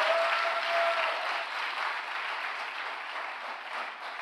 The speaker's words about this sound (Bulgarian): О, ако ръкопляскаш, ръкопляскай, като че наистина вярваш в това.